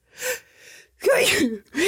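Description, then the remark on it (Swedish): A sharp intake of breath, then one loud sneeze with a strained voiced sound, and the start of another sniff or breath right after. No talking. “Prosit. Tack så mycket.”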